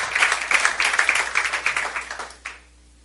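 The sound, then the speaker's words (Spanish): An audience breaks into dense, steady applause for the Lord, many hands clapping together for about two and a half seconds before it fades out, ending with a single last clap. “Démosle un aplauso fuerte al Señor, amén.”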